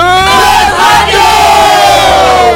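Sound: group of people yelling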